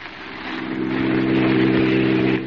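A car engine revs up and roars as the vehicle pulls away, a loud, steady droning growl that swells and then eases slightly at the end, with no voices.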